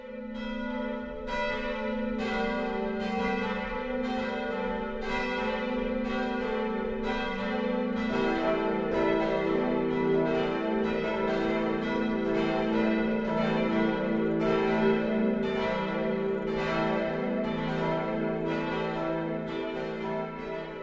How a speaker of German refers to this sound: Es ist 12 Uhr. Das Mittagsläuten kommt heute von der katholischen Pfarrkirche St. Johannes der Täufer im unterfränkischen Stadtlauringen.